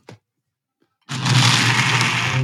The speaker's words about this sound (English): Here we have this mocktail version, which I'm now going to blend up in my trusty old blender.